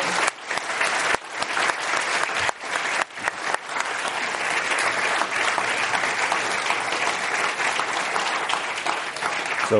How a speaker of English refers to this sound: So, uh, on uh, behalf of myself, …, the Commonwealth Club, and all of those here and those listening, I just want to join us in giving a big round of applause and appreciation for Franklin you.